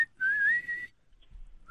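A single sustained whistle, one steady, slightly rising tone lasting under a second, fairly loud, followed by quiet background with a faint low rumble and a brief high chirp.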